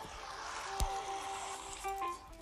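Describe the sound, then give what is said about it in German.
A flowing river gives a steady, broad rushing hiss throughout, with a soft thump near the start, a faint sustained whistling tone, and a brief knock at the end. No one speaks. “Leute, ein fließender Fluss.”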